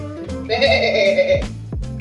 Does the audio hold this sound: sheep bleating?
yes